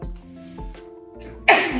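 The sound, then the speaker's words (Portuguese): A single sneeze: a short voiced, breathy build-up followed by a sudden loud, sharp burst of air near the end. “Saúde. Obrigada.”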